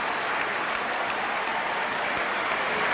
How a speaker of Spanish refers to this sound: expectante para que ingresen con un estilo muy especial los jugadores de la selección que encabeza el doctor Carlos Menem. La ovación lo dice ya está apareciendo.